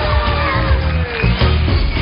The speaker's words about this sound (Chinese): 非常的难得，得到现场所有名贵的嘉宾你们热情洋溢的掌声。